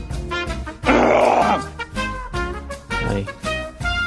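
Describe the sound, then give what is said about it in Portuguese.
A person on an online show imitates a lion's roar like a wild animal: one loud, harsh, rasping burst lasting under a second, followed by lower, voiced grunting and growling sounds that rise and fall. “no mudo antes de rugir assim, igual um selvagem, né, cara?”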